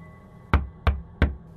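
Three firm knocks on a door, evenly spaced about a third of a second apart, each a sharp, solid thud with a low body, over a quiet background hum.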